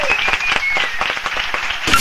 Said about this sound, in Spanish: Bueno, pues entonces ahí vamos con el aplauso. ¡Un aplauso! ¡El aplauso de hoy!